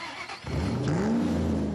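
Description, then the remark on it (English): A car engine turns over and catches, then revs upward with a rising whine before settling into a steady idle, fairly loud, with no voices. “A new car?”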